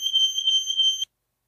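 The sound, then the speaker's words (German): A smoke detector alarm sounds one loud, shrill, high-pitched tone, held steadily for about a second before cutting off abruptly into silence. No one speaks. “So klang das jetzt. Feuermelder.”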